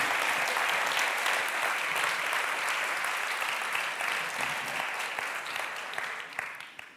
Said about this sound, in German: Applaus für sie.